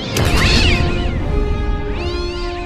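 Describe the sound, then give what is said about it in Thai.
A cat lets out two loud, drawn-out yowls as it runs into a clear glass crystal covering a cave mouth, the first overlapping a brief sharp impact, the second rising and falling a moment later, with no talking. “แมวเกเรวิ่งเข้าชนกับผลึกแก้วใสที่ครอบปากถ้ำอยู่เข้าอย่างจัง ด้วยความแรงทำให้มันหัวใจแตก ตาถลนออกนอกเบ้า ตายทันทีอย่างน่าอนาถ”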